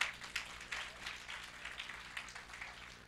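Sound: audience clapping loudly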